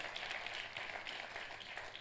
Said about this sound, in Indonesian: Tepuk tangannya yang meriah buat Tuhan kita.